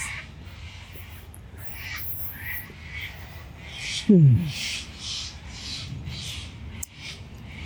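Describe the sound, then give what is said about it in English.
Agitated birds call repeatedly in bursts of harsh, squawking cries, with one louder, closer descending call standing out midway; a faint murmur of a voice is heard briefly. “And these birds are fucking angry pigeons or something, don't they?”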